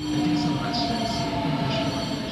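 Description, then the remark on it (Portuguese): A train rolls steadily along the tracks of the Linha do Norte railway line, its loud continuous rumble mixed with high metallic squeals from the wheels and a few sustained tonal hums. “Em contraste com o interrompido ramal da Lausanne, a linha do norte fervilha de movimento.”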